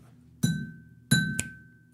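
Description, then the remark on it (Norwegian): Three metallic taps on a cola can, two clear strikes followed by a quick third, each with a bright ringing tone that fades briefly; no one speaks. “Er det noe jeg kan slå på her? Slå på? Colaboksen min.”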